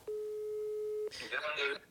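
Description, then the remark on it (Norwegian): A single steady ringback tone of an outgoing phone call to a friend sounds for about a second, clear and fairly loud, then stops as a voice begins speaking over the line. “Og da ringer jeg min beste turvenn her og nå.”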